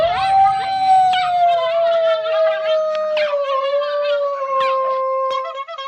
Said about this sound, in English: First of all, I'm gonna have to play the clown dog music because yeah, yeah, this motherfucker is the clown dog of the I'm century, you, bro.